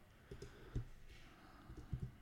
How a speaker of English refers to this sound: You guys can hear me typing.